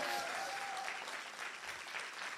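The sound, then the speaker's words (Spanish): An audience applauds Jesus Christ steadily, a dense wash of many hands clapping at a sustained, fairly loud level, with a faint tonal hum briefly audible at the start. “Dale un aplauso fuerte a Jesucristo.”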